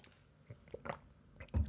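Quiet sounds of someone drinking water: a few soft sips and wet swallows in an irregular rhythm, ending with a slightly louder gulp. No one speaks.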